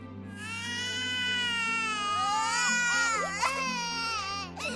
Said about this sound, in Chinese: 家里另一个五岁的孩子也被小婴儿的哭声惊醒了。